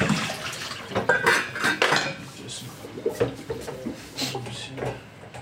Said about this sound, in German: Es hört sich jetzt an, als wäre ein Schrank umgefallen, aber es ist tatsächlich einfach nur die Apfelreibe, also die Reibe, die wir fürs Apfelreiben benutzt haben. Ähm aus 10 cm runtergefallen.